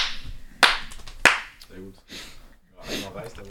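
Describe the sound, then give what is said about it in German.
Two sharp, loud hand claps about half a second apart, made to synchronize recordings, followed by people talking quietly. “Oder wollen wir nicht irgendwie klatschen oder sowas? Oder checkt ihr das mit Synchronisieren?”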